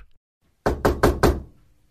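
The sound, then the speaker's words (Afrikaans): A man who has just climbed off his horse knocks four firm times on the wooden door of a small house, in a quick, even rhythm, fairly loud, each knock with a short hollow resonance, followed by quiet. “Hy klim van sy perd af en klop aan die deur.”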